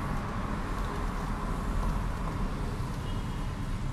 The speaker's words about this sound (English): Oh, sh- listen, hear the car? Oh.